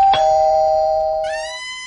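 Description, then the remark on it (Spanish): A doorbell rings with a two-tone chime: a lower sustained tone followed by a higher, brighter one, both ringing out with harmonic overtones before fading. No one speaks. “¿Tocan la puerta?”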